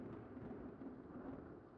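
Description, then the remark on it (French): A steady, low rumble of thunder rolls on through a stormy night, with a constant hiss of rain beneath it and no voices. “Mais un jour, il retrouve une femme, nue, sur son balcon, pendant une nuit d'orage.”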